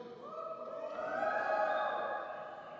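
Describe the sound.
Several men in an auditorium audience howl like wolves, overlapping drawn-out wails that rise and swell before tapering off, with no speech.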